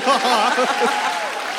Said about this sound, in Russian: Давайте поаплодируем, а? Я знаю, тебе нравятся аплодисменты.